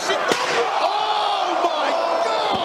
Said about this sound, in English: If you want to join in the show, every time you hear this sound of a chair shot, oh